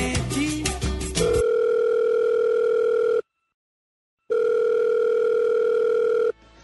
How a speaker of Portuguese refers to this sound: Alô? O telefone tocou novamente.